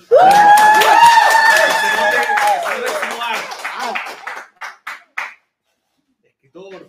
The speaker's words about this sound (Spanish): Eh, estamos acá en la sede con, harto público, harta compañía hoy día, para compartir eh, con un, amigo de la casa, Rafael Gumucio. ¿Cómo estás? ¡Aplausos!